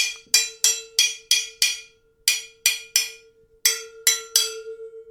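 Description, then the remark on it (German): A plastic spoon taps a lid about a dozen times in quick bursts of three to six, each sharp knock leaving a short, steady ringing tone. Fairly loud, with no voices. “mit einem Plastiklöffel auf das, auf den Deckel.”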